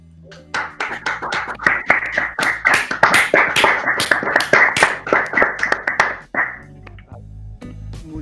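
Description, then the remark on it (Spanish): A burst of audience applause after an interview, many hands clapping in a dense, irregular patter that swells quickly, holds steady for several seconds, then fades out, leaving quiet background hum. “Así que me gustaría pedir un fuerte, fuerte, fuerte aplauso”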